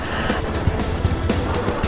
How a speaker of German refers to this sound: Man hört es am Rauschen im Hintergrund. Es ist Frankfurter Buchmesse